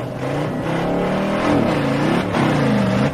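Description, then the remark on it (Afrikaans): A racing car engine revs hard, its pitch climbing and dipping in repeated surges, loud with a steady rough roar underneath and no voices. “Hierdie is nie die Queen se Rolls-Royce nie, dis 'n racing masjien. Hy kan nie net stil stil voortploeter nie.”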